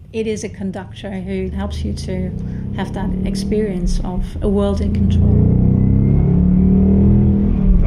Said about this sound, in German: das ist jetzt so ein, boah, so ein richtig bäriger Sound, so ein ganz klassischer V8-Sound. Nicht klassisch aggressiv. Ja, das ist jetzt keine hochfrequente Komponente, sondern das sind tieffrequente Komponenten und die schieben an